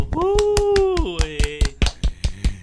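Brisk, rhythmic hand clapping in a steady beat, with a sustained high vocal cry ringing over the first half before the claps carry on alone, sharp and fairly loud.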